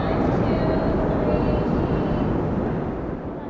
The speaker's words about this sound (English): The roar of the M train right above. But when that dies down, you'll start to hear something less mm. common.